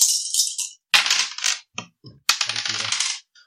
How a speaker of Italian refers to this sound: E a questo punto vedremo anche come si fanno a stabilire i successi. Tiro i quattro dadi.